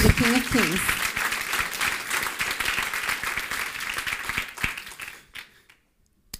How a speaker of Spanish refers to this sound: Ahora sí, déle ese fuerte aplauso al Rey de Reyes.